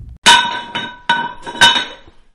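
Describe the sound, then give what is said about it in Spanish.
Dishes clink together several times in an uneven rhythm as a woman serves food onto plates in a kitchen: bright ringing knocks of ceramic, fairly loud, with brief quiet gaps between them and no voices. “Cuando todo quedó listo, la mujer empezó a servirlo en los platos.”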